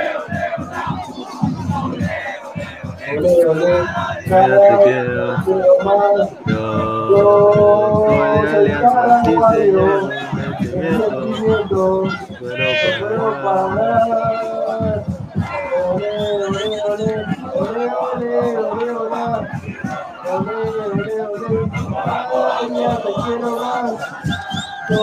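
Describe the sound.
A large crowd of football fans at a banderazo (flag rally) chants loudly and continuously, voices rising and falling in sung, rhythmic waves of "olé, olé" with occasional shouts and whoops over a dense roar.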